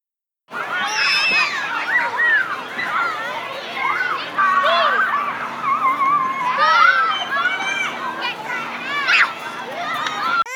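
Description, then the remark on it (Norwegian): A lively crowd of children playing, with overlapping high-pitched shouts, squeals and chatter continuing steadily for about ten seconds, loud throughout. “Da vil jeg ha lyden av unge som leker mot en baby som skrik, i ti sekunder.”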